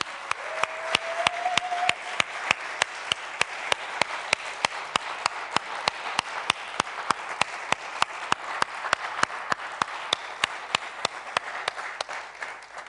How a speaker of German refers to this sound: Ihr lieben Männer, ihr lieben Kinder und Jugendlichen, die ihr Eltern habt hier, lasst uns ihnen einmal einen kräftigen Applaus geben, denn sie haben es verdient.